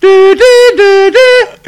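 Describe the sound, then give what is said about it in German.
A voice imitates the sound of the Atari version of the Pac-Man video game, singing four loud, steady tones that alternate between a lower and higher pitch in a quick, siren-like pattern. “Das ist der Sound von Pac-Man übrigens.”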